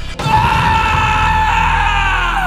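A man lets out a loud, sustained scream as he wakes from a nightmare in a hotel bed, raw, holding steady for over two seconds before trailing off slightly at the end.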